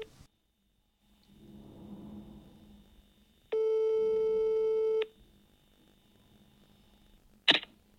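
A single loud telephone ringing tone, a steady buzzy electronic note lasting about a second and a half, follows a soft rumble and is followed by a sharp click, as a phone call is placed.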